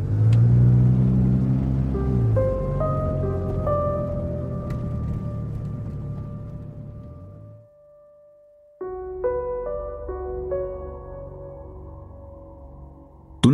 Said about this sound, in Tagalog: Tuloy-tuloy kong pinatakbo ang sasakyan palagpas sa isang simbahan